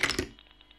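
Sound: typewriter typing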